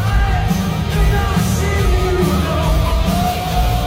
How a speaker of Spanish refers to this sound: Esa batería que usted escucha es de un chileno.